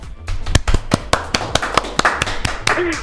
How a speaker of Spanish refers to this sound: Fuerte el aplauso.